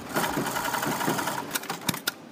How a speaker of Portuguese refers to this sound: É o ruído diário numa das mais antigas fábricas de calçado do país. É Everest, em São João da Madeira,